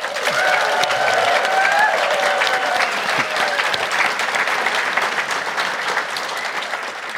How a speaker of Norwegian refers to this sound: Så jeg tenkte vi skulle ta en sånn applaus og heiarop for gjestene først, så høyt som mulig.